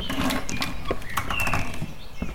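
The door of an empty building, being scouted as a location for a short film, is opened: several sharp clicks and rattles of the latch mixed with thin, high squeaking tones from the hinges, over a steady low rumble, with no voices.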